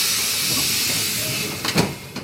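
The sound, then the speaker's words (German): A steady, loud hiss of rail noise as a train, six minutes late, pulls into Berlin Hauptbahnhof on track 1, with a couple of short metallic clunks near the end. “Meine Damen und Herren, den Berliner Hauptbahnhof mit einer Verspätung von noch sechs Minuten auf Gleis 1.”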